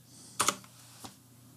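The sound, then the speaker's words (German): A few sharp clicks of a loud mechanical gaming keyboard: a quick double keystroke, then a single fainter tap about half a second later, with no talking. “Kannst du dir dann mal eine leisere Tastatur kaufen, sag mal? Ähm, das ist eine Gamer-Tastatur.”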